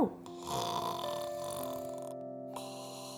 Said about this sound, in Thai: หมีทั้งสอง นอนรอฟังนิทานก่อนนอนจากแม่ ในขณะที่พ่อหมีกรนหลับสบายไปแล้ว